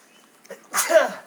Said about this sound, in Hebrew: לבריאות.